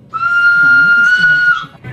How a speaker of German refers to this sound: Das war der Pfiff.